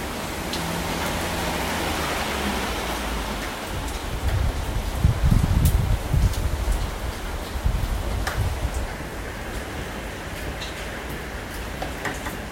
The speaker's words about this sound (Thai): อาจจะได้ยินเสียงพายุอยู่อีกนิดหน่อย แล้วก็ก้องๆนิดนึง คือเนื่องจากตอนนี้เวลาสองทุ่มสามสิบตามตารางแล้วพายุญี่ปุ่นตรงตามตารางนะคะ